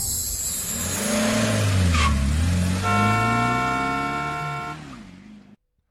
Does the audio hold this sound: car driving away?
yes